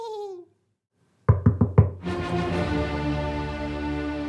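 Four quick, firm knocks on a door in a children's Little Red Riding Hood story, in a brisk, evenly spaced burst, followed at once by sustained music; a short tonal sound and a pause come just before the knocking.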